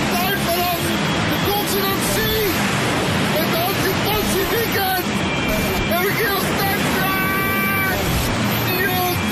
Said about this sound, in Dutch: Oh, fuck, mijn microfoon is in het water gevallen.